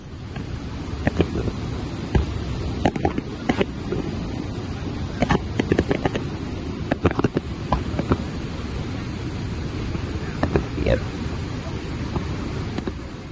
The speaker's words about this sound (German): Ja, das waren die äh, Niagara-Fälle mit Feuerwerk. Wirklich beeindruckend.